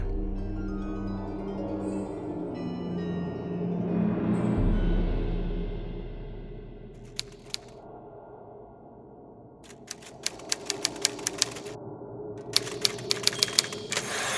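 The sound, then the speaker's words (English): A low droning tone fades out, then typewriter keys start clacking: a few isolated strikes, then quick, uneven bursts of sharp mechanical taps, clear, with no voices. “There was but one typewriter in the house, and it sat in this very room, yea, right upon the very desk where he nodded.”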